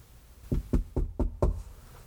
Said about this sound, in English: It's near evening now, dark outside. Ishmael is back at the inn and knocks on the locked door to their room where he left Queequeg that morning.